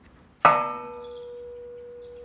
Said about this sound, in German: Hier ist der Befund also offensichtlich. Die Glocke hat einen Riss im Bereich des Schlagrings. Der Klöppel hat die Glocke über Jahre hinweg einfach zu stark traktiert.